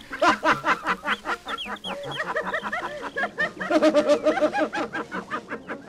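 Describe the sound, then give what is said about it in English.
An old recording of bird sounds: a dense, steady stream of rapid chirping and clucking calls overlapping one another, fairly loud, with no talking. “There are recordings of birds that are successfully marketed.”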